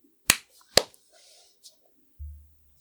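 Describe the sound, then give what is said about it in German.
Two sharp, loud hand claps about half a second apart, followed by faint murmuring and a brief low hum near the end. “Das heißt, wir versuchen jetzt alle mal im 14-tägigen Rhythmus zu klatschen.”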